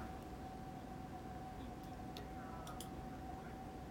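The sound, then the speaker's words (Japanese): A faint J-Alert emergency warning siren test in Japan holds one steady tone throughout at 11 o'clock, heard from inside a home with all windows shut, over a low rumbling background, with a few light clicks partway through. “J アラートの訓練ですかねなんかサイレンが”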